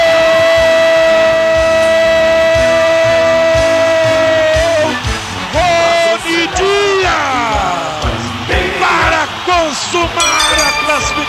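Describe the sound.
A football crowd at the Estádio do Café roars continuously after Londrina's first goal against Curitiba, a free kick that hit the crossbar and went in, as a man's voice holds one long, loud shouted note for several seconds, then breaks into excited, swooping yells over the steady cheering.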